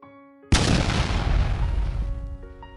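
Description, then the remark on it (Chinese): After a brief quiet stretch with faint steady tones, a single loud explosion blasts open the main door of a warehouse, its booming, crackling roar and low rumble fading gradually over the next two seconds. “所有人还没来得及说话，一声巨响，大门被轰的炸开。”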